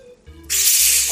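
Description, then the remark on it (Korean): A shaken plastic soda bottle's cap is twisted open, starting with faint creaks and clicks of the cap, then a sudden loud, steady hiss of escaping gas that holds to the end. “이것은 쉐킷쉐킷 흔들었던 거 모르고 바로 열면 화산 폭발하듯이 내용물이 튀어나오니까요.”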